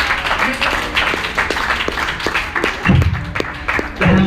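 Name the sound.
audience clapping hands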